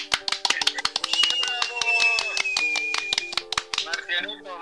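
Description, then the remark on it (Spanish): Applause for a few seconds: dense, irregular hand claps, fairly loud, mixed with sustained ringing tones and a sliding whistle-like note. “¡Aplausos!”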